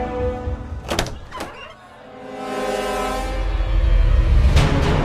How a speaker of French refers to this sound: Ah, la porte s'ouvre.